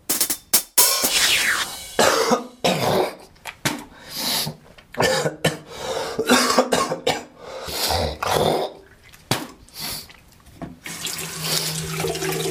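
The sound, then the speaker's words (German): Close, wet coughing and hacking in irregular bursts, with throat clearing as someone brings up phlegm, while a tap runs water into a sink throughout. “Das Wichtige, wenn man erkältet ist und Husten hat, ist, wenn sich der Schleim irgendwann dann löst, dass man den auch richtig abhust und danach ausspuckt, weil sonst wird man nämlich nie gesund.”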